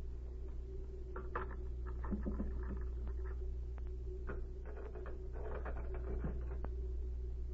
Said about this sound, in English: I'll look through his desk first. It's locked. Perhaps one of these skeleton keys Z gave me will work.